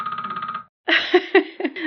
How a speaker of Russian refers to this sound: это был будильник? Да, это часть моей жизни, это отчетность, это система, посредством которой я сам себе создаю обстоятельства, когда я что-либо не могу не сделать.